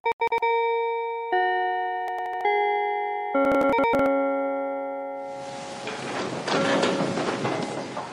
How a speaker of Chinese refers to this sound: 此刻铃声响起，同学们纷纷醒来。